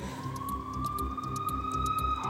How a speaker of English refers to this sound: Okay, it's a siren in the background. Of course, like wanna what kind of siren? Sounds like a normal siren.